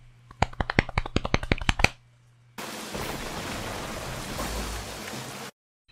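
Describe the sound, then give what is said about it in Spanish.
About a dozen quick pats on legs, then a steady rushing hiss of hands rubbing together for a few seconds, done by a group imitating the sound of rain. No one speaks. “Todos junten sus manos así para hacer el sonido de la lluvia.”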